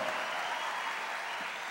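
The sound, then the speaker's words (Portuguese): A church audience applauds Jesus steadily, a dense, even wash of many hands clapping at once with no single claps standing out, sustained at a constant level throughout. “Vamos aplaudir Jesus.”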